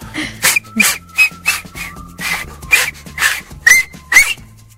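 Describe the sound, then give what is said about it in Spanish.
Someone tries to whistle, producing about ten breathy puffs of air in a steady rhythm, some with brief, thin whistle squeaks breaking through. No one speaks. “¿Quiere que chifle? A ver.”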